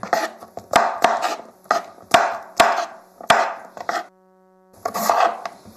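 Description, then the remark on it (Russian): A knife chops 40 grams each of red and green bell peppers into fairly large pieces of about 2 centimetres on a board, for a sweet and sour sauce, in a steady run of sharp taps with crunchy, rustling scrapes between them, then a short pause before the chopping resumes. No one speaks. “Нарезать тем же способом.”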